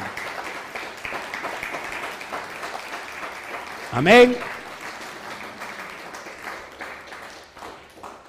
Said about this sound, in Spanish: Dele un fuerte aplauso al Todopoderoso, porque ya lo hizo.